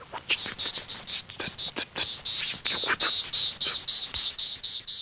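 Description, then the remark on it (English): An irregular, jittery call of the periodical cicada Magicicada septendecula: bursts of buzzy high-pitched chirps and clicks in an uneven rhythm, steady, with no voices. “Magicicada septendecula is making like It's kind of irregular. So that's the bebop guy.”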